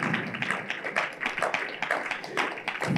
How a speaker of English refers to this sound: Clap your hands and shout glory to God oh, clap your hands if you, you can do it better.